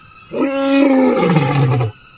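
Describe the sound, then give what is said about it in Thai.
A single deep lion roar in anger, loud, swelling in for under two seconds then sliding downward into a lower rumble before cutting off. No one speaks over it. “ด้วยความโกรธนั้นราชสีจึงคำราม”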